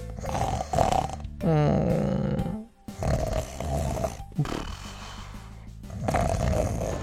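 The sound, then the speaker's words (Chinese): A voice imitates a pig snoring as a pig character falls asleep in class while classmates read aloud: a string of loud, rough, snorting snores with grunts between them, one drawn-out rasping snore standing out near the middle, with a short murmur at the start. “课堂上的小呼噜”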